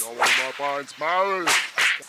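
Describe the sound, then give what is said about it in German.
Three sharp, hissing whip-like cracks strike at uneven intervals on a carpet carried on a man's back, interleaved with loud, tonal vocal sounds that rise and fall between the blows. “Seitdem hab ich jetzt immer einen Teppich auf dem Rücken und vermarkte mich als Teppichausklopfer.”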